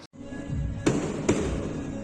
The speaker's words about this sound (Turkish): Esenyurt'ta mahalleli sokakta düğündeydi. Bir grup havai fişek atmaya başladı. Hem izinleri yoktu hem de çok alçaktan patlatıyorlardı. Kıvılcımlar 3 katlı bir binanın çatısına düştü.